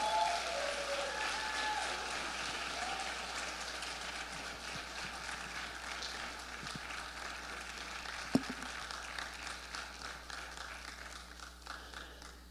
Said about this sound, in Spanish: Y yo quiero que ustedes le den un aplauso fuerte al pastor Casey Perry.